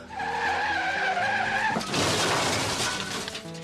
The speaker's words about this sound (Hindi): but अचानक वो principal साहब मेरी गाड़ी के आगे आ गए और गलती से बस उनके उनके ऊपर गाड़ी चढ़ाते हुए मैं पेड़ से टकरा गया